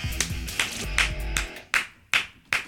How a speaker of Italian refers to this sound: Attenzione, applausi, eh beh, applausi. Applauso singolo, il mio vero però, non preregistrato.